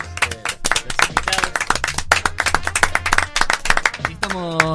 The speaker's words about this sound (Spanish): Les regalamos un aplauso fuerte, bien fuerte para todos.